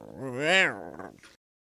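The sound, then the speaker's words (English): A person's voice imitates a cat's meow: one drawn-out, wavering cry that rises in pitch, then falls and trails off after about a second, loud, followed by silence. “It's becoming a cat like sound.”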